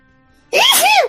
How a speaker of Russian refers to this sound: Будь здоров.